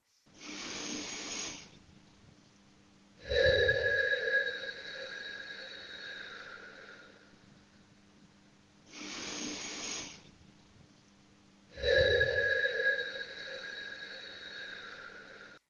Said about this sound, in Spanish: Ahora respira fuerte. Mete mucho aire en tu nariz y suéltalo. Así.